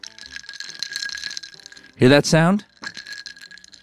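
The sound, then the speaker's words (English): Ice cubes rattle and clink against a glass in a close, steady jangle, stopping briefly while a voice speaks and then resuming more lightly. “Today we're devoting the entire episode to ice cubes.”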